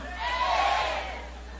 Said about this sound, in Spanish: Los que están en el santuario de los jóvenes tienen que gritar más fuerte para que yo les pueda escuchar.